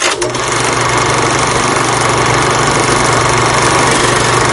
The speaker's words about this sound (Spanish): Cuántos recuerdos, ¿verdad? Nos trae a todos este sonido, el del proyector del cine